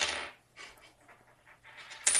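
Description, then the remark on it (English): A coin spins and rattles on a hard desk surface, a bright metallic whirring that wobbles faster and faster before settling with a final clatter, fairly loud with no talking. “I'm, I'm of spinning a coin on the desk that I'm at.”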